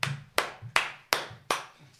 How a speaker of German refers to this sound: Ja, gut, habe ich ja doch gewonnen. Eine Runde Applaus für mich